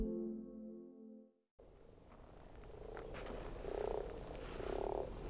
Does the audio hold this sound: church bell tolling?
no